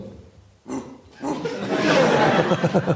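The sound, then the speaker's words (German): A person, asked to give their best dog bark, gives a loud, gravelly impression of a barking dog: a short yelp followed by rough, growling barks that break into rhythmic bursts, with laughter mixed in. “du müsstest äh, einen Hund für uns machen. Du müsstest uns dein bestes Bellen geben”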